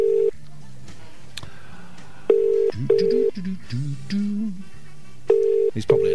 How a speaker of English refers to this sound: So I've punched his number into the phone, and we shall dial the first of two numbers that I have for uh, Doctor Eugenio Proto, and see if he um, even wants to talk to us.